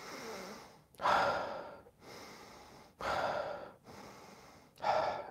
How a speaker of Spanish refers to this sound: eso no lo estás haciendo bien. ¿Por qué? Porque no es una respiración orgánica. Lo que queremos es volver a lo orgánico, natural, al centro. Entonces, si tú estás poniendo esa fricción y esa fuerza, vas a desviar el propósito,